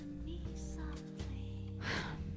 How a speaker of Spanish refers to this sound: Espérame, es que estoy inhalando y exhalando porque está cabrón.